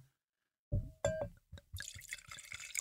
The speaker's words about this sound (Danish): Og så vil jeg lige hælde op til dig her.